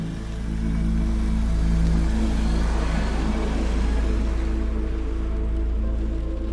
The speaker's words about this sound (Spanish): Comencé a manejar sin toparme con ningún otro carro. La lluvia golpeaba el parabrisas.